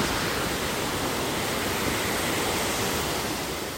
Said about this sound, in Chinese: 现在我们就要前往那个处女瀑布了。